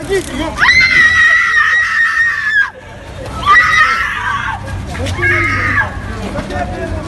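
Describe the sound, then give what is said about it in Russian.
A young woman screams piercingly three times, one long sustained shriek followed by two shorter ones, loud, over a murmur of crowd noise and commotion, as riot police restrain her in St. Petersburg and hit her with a stun gun. “Одним из первых появилось видео, где космонавты скрутили хрупкую девушку, которая пронзительно кричит, и вовсе не от страха, а от того, что ее при этом бьют электрошокером.”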